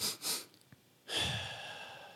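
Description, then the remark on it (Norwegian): A person demonstrates a breathing technique for stressful situations: two quick inhales through the nose, a brief pause, then one long, steady exhale that gradually fades. No talking, just breathing. “Kan du gjøre to pust inn”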